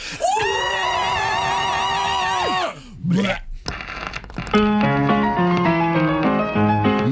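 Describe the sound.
A few voices scream loudly together in one sustained, wavering shout lasting a couple of seconds, then cut off; after a brief pause, upbeat music begins.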